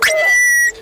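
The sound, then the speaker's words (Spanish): A single pilot whale calf's answering call to its mother: a loud, steady high whistle with thin overtones, opening with a brief rising chirp and holding nearly level for under a second before cutting off. “Oigan la llamada de respuesta.”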